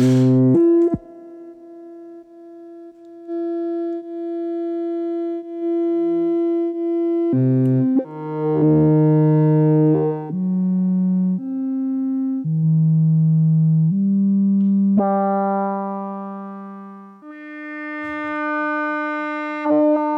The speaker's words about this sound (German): können wir hier einfach mal die Tonhöhe von dem Oszillator verändern noch.